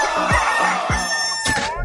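A rooster crows loudly, one long strained cock-a-doodle-doo with a rising then falling call, with no voices.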